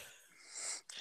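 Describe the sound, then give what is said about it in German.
A small chihuahua dog wheezes, a raspy, airy hiss lasting about a second that breaks off briefly before a final snuffly burst. It is fairly quiet, with no talking. “das war der Hund.”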